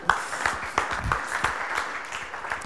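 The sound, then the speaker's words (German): An audience claps steadily, a dense patter of many hands with sharp individual claps popping out, sustained at moderate loudness with no speech over it. The applause is for the few people who still had the litmus strip they were given. “Gratula Applaus an die vielleicht.”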